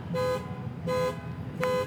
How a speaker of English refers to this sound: they locked their keys in their car and set the alarm off trying to get their keys out of the car?